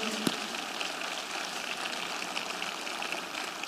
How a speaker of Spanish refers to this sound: Dar un aplauso fuerte al Señor.